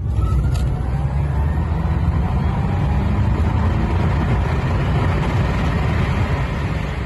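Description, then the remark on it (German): An electric Porsche, converted by the company Revive Automotive in Nordhastedt, drives past: a steady, fairly loud low rumble of tyres and road noise with a faint whine that holds evenly throughout, with no voices. “Dieses hier ist aber ein Elektro-Porsche.”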